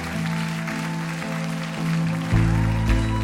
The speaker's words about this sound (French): Nous approchons la fin de ce concert. Je voulais remercier tous ces musiciens derrière que je vous laisse applaudir.